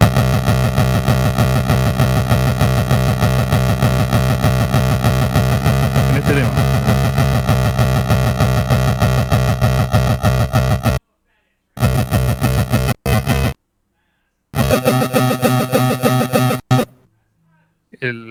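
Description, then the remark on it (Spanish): Buzzy chiptune pulse-wave synth tones from a game console's pulse channel, routed through a mixing desk and effects pedal into an audio interface, drone loudly and continuously, then break into short stuttering bursts separated by abrupt silences toward the end. “Ah, mira, por ejemplo, el canal de pulso suena así.”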